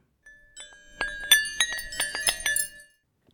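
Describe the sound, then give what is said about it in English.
Metal wrenches clink together in a quick, irregular series of bright strikes, each leaving a short ringing tone, fairly loud with no voices. “Listen to the wrenches sing.”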